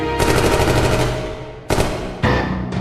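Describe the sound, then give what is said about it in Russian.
Loud submachine gun fire from Al Capone's men posing as police, shooting Moran gang members lined up against a warehouse wall: one long rattling burst of rapid shots, then three shorter bursts in quick succession, harsh and crackling, with no voices. “Не ожидая подвоха, боевики ирландца выполнили приказ, и почти сразу же прозвучали автоматные очереди.”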